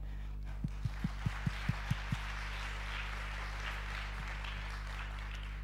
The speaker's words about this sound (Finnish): Aivan mahtavaa. Hei, aplodit teille!